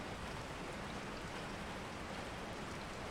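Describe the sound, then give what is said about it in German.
A soft, steady hiss of gentle rain falls continuously without pauses, an even wash of fine droplets at low volume with no voices. “Über dir ziehen dunkle Wolken am Himmel entlang, deren Regen in sanften Schauern auf die Erde fällt.”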